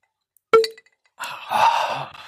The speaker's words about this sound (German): Und dann, am besten ist eigentlich das Geräusch nach dem Plop bei einer Flensflasche. Ah. Hört man? Ja, dieser kleine Nachhall. Ja, Nee, Ding. ja dieses Klappern. Ja, genau.